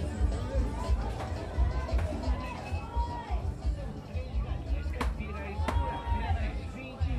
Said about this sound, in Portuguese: São várias barracas vendendo diversos produtos frutas, verduras, legumes, carnes, pastel, itens de cozinha, galinhas, produtos de limpeza.